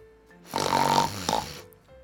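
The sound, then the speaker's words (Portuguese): A single drawn-out snore, likely voiced by a person imitating it: a raspy, rattling inhale lasting about a second, ending in a short snort, loud with quiet on either side. “Talvez isso o faça parar de roncar e assim poderemos voltar a dormir.”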